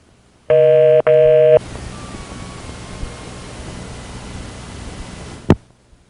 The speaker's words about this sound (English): The little touchtone ditty at the beginning is being played by the modem and is inspired by the Bell system's use of that exact same little ditty.